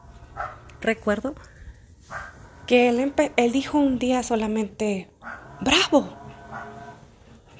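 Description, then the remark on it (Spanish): Dogs from a household with three dogs bark and whimper in short bursts, mixed in with a person speaking, with one sharp, high yelp standing out toward the end. “ay, disculpen el ruido, de eh, pero Sí, ya saben, tengo tres perros, dos hamsters y una lagartija.”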